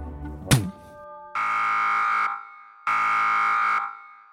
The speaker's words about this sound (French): Iron Man a appuyé sur le bouton, une sirène retentit, il commence à disparaître.